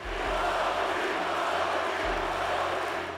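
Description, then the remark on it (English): A large crowd chants and roars together in a dense, continuous wall of voices, loud and reverberant, with a low rumble underneath and no single speaker standing out; the crowd breaks into chants prompted by Jimmy's words at an event remembering Kobe Bryant and his daughter Gigi. “And his words prompted the crowd to break out into chants.”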